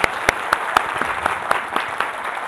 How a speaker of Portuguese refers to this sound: Então, uma salva de palmas. Muito bom, muito bom.